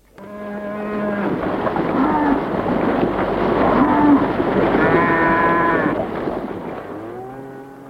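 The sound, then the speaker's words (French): Several cows moo loudly as they are milked in the evening, their long, drawn-out lows overlapping in a continuous chorus for several seconds before trailing off. “Le soir, en rentrant de l'école, elle traite les vaches et s'occupe des chèvres.”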